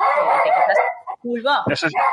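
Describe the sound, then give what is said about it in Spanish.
A dog barks and yips in quick, overlapping, loud bursts, with a brief pause partway through before the excited barking resumes. “eso es, el perro.”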